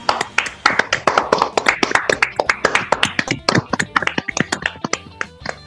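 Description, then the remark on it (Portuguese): A round of applause in tribute to everyone: many sharp, rapid hand claps overlapping in a steady, dense patter that stays fairly loud throughout, with faint voices underneath. “Uma salva de palmas para todas as pessoas em homenagem.”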